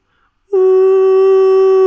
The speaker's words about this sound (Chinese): 咕咚，咕咚，响了两声，接着。就传来了火车的汽笛声。